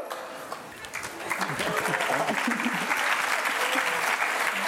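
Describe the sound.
An audience at a Liebenzeller Mission event breaks into applause as the mission's leadership is called onto the stage, dense steady clapping that swells after the first second and stays loud and sustained, with a few voices faintly mixed in beneath it.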